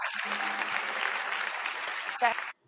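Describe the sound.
Steady applause from a crowd in a played recording, a dense continuous clatter of many hands clapping at moderate volume, with a brief voice near the end before it cuts off abruptly.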